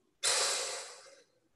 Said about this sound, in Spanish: y por tercera vez voy a inhalar por la nariz, llevando el aire a la panza bien abajo.